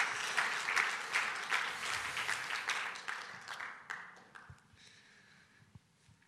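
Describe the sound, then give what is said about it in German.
A crowd applauds a speaker with dense, crackling claps that start full and steady, then gradually thin out and fade over about six seconds, with a few scattered final claps. “Noch ein Applaus für dich.”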